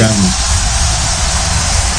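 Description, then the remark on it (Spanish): A dense, steady wash of applause from the production team welcoming a guest fills the whole clip, loud and continuous like an ovation, with no individual claps standing apart and no voices heard over it. “Mira cómo, te recibe producción, eh, con una fuerte ovación,”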